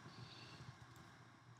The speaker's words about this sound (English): excuse my coffee maker is still making coffee, but nonetheless, you might hear the noise in the background.